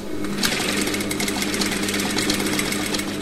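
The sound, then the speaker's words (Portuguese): A sewing machine used for handmade craft work runs steadily, its rapid mechanical stitching forming a dense, even whir with faint rhythmic ticking throughout. “Muitos destes trabalhos exigem o uso da máquina de costura.”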